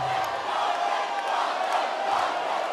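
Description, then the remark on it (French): A large football crowd chants N'Golo Kanté's name in unison as the France national team returns from its 2018 World Cup victory, a dense roar of many voices holding steady and loud for the whole stretch, with no single voice standing out. “Pogba fait le show, mais si vous écoutez bien, celui qui est réclamé, c'est N'Golo Kanté.”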